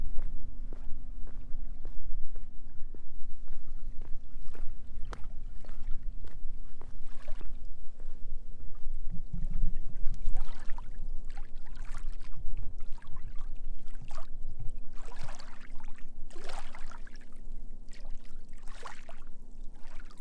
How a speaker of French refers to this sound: Je, je voulais vous faire écouter le clapotis euh, de l'eau de la marée montante sur les rochers.